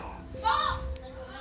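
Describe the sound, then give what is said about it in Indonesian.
Faint, muffled voices of many people outside, a child's among them, carry in briefly over a steady low hum, heard from an attic through a window with a hole in its glass. “Nah, jadi banyak orang yang ngomong kedengeran gitu”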